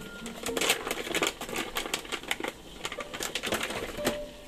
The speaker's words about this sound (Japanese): インドで買ってきたシナモンですねバリバリと割って今煮出しているところです